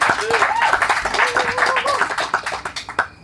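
An audience applauds with dense, rapid clapping that continues steadily, mixed with a few cheering voices, then thins into scattered separate claps before ending.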